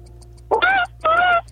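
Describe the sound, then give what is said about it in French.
A voice mimics a seagull with two loud, nasal, wavering cries, the second slightly longer, with faint ticking in the background and no speech. “Ça, c'est la mouette qu'on veut.”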